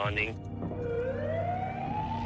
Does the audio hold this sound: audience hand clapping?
no